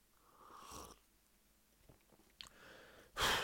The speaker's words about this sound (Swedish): Jag måste ta lite vatten.